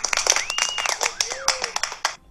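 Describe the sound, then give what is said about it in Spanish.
A small group applauds with quick, dense, uneven claps that run steadily throughout, while rising and falling vocal whoops and voices sound over the clapping. “Eso, aplausos.”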